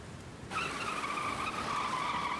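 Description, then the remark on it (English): A truck's wheels spin hard in thick, deep mud as the truck is pulled out, kicking in suddenly with a steady, high whining squeal that holds without a break to the end, loud, with no voices. “you were just in really thick, deep mud. And yeah, you guys pull the truck out.”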